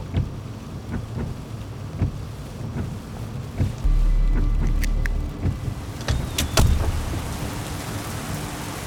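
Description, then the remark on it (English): Steady rain falls throughout, a dense hiss broken by sharp patters of drops striking a surface, with a low rumble swelling briefly in the middle. No voices are heard. “Despite the rain and the massive ringing in my ears, I knew I had to get out to check.”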